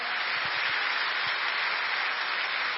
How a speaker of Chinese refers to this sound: 哈利路亚，感谢赞美主，谢谢主，我们给上帝一个掌声。